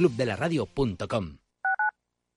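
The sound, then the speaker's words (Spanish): A person speaks briefly, then two quick electronic telephone keypad dialing tones beep in succession, clear, after a short pause. “La compra es online, pero no os vamos a negar que nos encanta que nos llaméis. El teléfono, olvídate, no te vas a acordar.”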